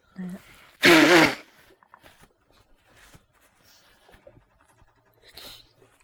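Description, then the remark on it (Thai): A single loud, honking nose blow lasting about half a second, with a wavering pitched edge, followed by faint scattered sounds and quiet murmuring. “เขาสั่งขี้มูกเลย”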